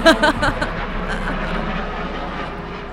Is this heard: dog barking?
no